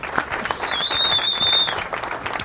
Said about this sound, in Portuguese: Olha que bonito, hein? Cadê os aplausos aí?